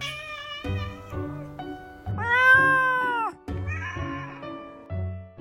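Cats meow repeatedly in overlapping turns, one stretching out a long, loud, wailing meow in the middle that rises and falls in pitch, with shorter, harsher meows around it and no talking.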